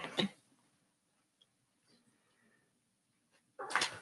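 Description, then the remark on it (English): A female dog that has just walked in makes a short, breathy burst of noise, then faint rustling and shuffling movement, before another louder, longer burst near the end. No one speaks. “My dog just walked in, so don't mind her.”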